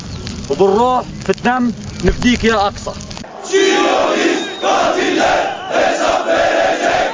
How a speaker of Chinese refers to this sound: 加萨示威群众抗议，挥舞哈马斯旗帜，高举标语，烧轮胎。